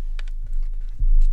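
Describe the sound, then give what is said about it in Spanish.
A crisp sheet of paper is pulled out, giving a few short, dry crackles and rustles over a steady low hum, with no one speaking. “Mientras me hallaba sumido en tales pensamientos, el diablo había sacado un pliego crujiente y en una de sus manos brillaba una aguja.”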